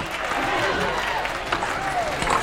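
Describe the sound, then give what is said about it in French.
A large crowd outside a cathedral cheers and shouts for a king's coronation on 25 October 1722, a dense, continuous roar of many overlapping voices, loud throughout, with scattered individual calls rising above the din. “Oh là là, quelle foule Qui sont nombreux Le carrosse a du mal à avancer.”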